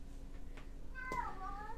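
A cat gives a single drawn-out, wavering meow that starts abruptly partway through, over a steady low background hum with no talking.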